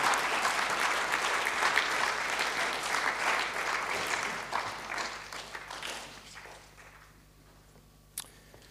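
A church audience applauds to welcome a staff member up, in a dense, steady wash of clapping for about six seconds, then the applause thins and fades out, with a single sharp tap near the end.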